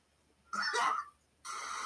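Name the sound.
cat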